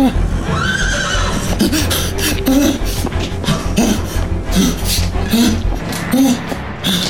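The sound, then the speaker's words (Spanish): A horse neighs in the distance, its whinnies rising and falling repeatedly over a steady, rumbling background of noise. “Por más que corría, aún podía escuchar ese terrible relincho a lo lejos.”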